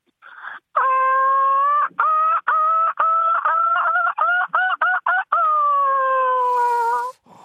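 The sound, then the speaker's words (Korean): Loud sea gull cries: a drawn-out wailing call, then a rapid run of shorter yelping notes, ending on another long call. No other sounds or voices. “흔한 소리는 아니고요. 바다 갈매기 소리입니다.”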